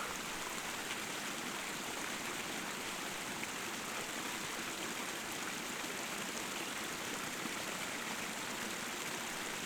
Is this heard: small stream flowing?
yes